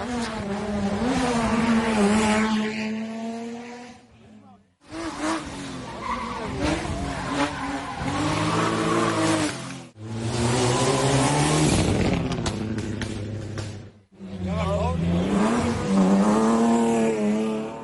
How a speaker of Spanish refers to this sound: Así sonaban los motores de algunos de los automóviles que participaron en esta vigésimo segunda subida a Arucas el sábado por la mañana